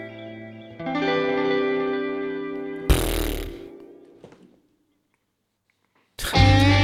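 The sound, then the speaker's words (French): A processed electric guitar played through an effects pedal with small dual concentric knobs rings out in sustained, effect-laden chords, then a bright burst hits and decays into silence before a loud, heavily treated chord returns at the end. No one speaks. “on le voit toucher sa petite pédale, il y a des petits boutons.”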